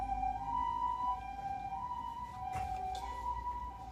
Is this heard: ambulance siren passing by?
yes